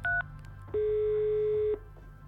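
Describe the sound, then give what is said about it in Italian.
A quick electronic keypad beep from a phone used by someone under a thick bramble hedge in a wood, followed after a short pause by a longer steady tone lasting about a second, clear with no voices. “Ho il telefono in una tasca e la pistola nell'altra. Nient'altro. Dal roveto chiamo Antonio”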